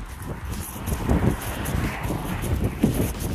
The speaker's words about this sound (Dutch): En dan gaan we, je hoort misschien al meteen een wind. Ik probeer wat harder te praten.